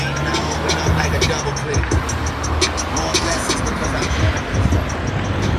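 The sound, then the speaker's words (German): Steady, loud roar of traffic on the Warschauer, a busy city street, with passing cars and a low engine rumble throughout, a constant wash of noise with faint voices mixed in. “Ja, genau, einmal über die Straße. Aber die Warschauer, die ist etwas laut.”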